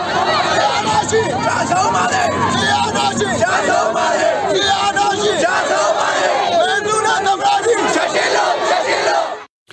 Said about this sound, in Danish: det har ikke kun været i øh, så hyggelige demonstrationer som her med deres demokratisang